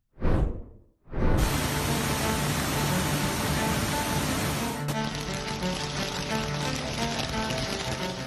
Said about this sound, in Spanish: Ahora están teniendo lluvias torrenciales que han provocado inundaciones relámpago.